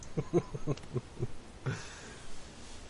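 A night bird gives a run of short, husky calls that sound like coughing, about seven in quick succession, then one more after a brief pause, with no one talking.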